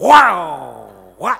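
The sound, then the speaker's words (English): A voice does a loud, drawn-out vocal imitation of a Ferrari engine revving as the accelerator is touched, its pitch sliding downward over about a second, followed by a brief spoken interjection. “And of course, with a Ferrari, all you have to do is just touch the accelerator and it goes wow,”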